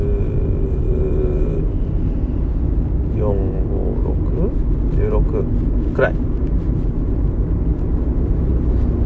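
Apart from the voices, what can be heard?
car interior road noise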